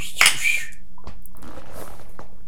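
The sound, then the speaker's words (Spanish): Glasses clink together once in a toast, a bright ringing chime that fades quickly, followed by faint clatter and quiet room noise. “Choquela, choquela.”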